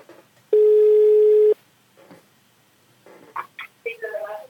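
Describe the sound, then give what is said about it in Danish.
One loud, steady telephone ringing tone lasts about a second as a call is placed, then falls silent; after a pause, voices begin talking faintly as if over a phone line. “Søn har bedt os om at ringe.”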